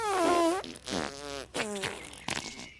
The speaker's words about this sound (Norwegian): Ja, en gang så forvandlet det seg til og med til en gigantisk rumpe som bare prompet hele dagen.